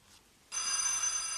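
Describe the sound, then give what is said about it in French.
A telephone bell starts ringing abruptly after a brief quiet moment, a loud continuous bright electric trill with sharp high tones that holds steady to the end. “Pardon, le téléphone.”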